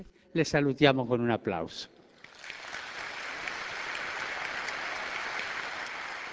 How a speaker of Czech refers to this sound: díky všem zde přítomným maminkám, které zdravíme potleskem.